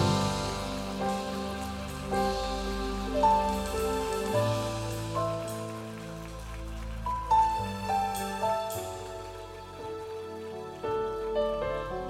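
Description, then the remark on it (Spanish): Steady applause from a crowd, a dense clattering wash of clapping lasting several seconds, with sustained keyboard chords playing underneath and no talking. “Deles un fuerte, fuerte, fuerte aplauso.”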